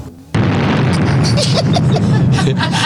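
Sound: bomb explosion sound effect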